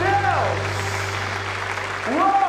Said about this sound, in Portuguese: Aplauda ele bem forte.